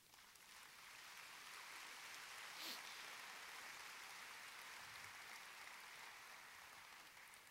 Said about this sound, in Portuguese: Enquanto eu tomo água, me refaço, dá um aplauso para Jesus.